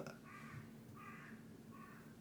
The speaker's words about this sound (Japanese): カラスが カーカーと言ってますねカラスがね僕をバカにしてますねカーカーお前もう若くねえだろうカーカーうるせえ静かにしてろクソカラス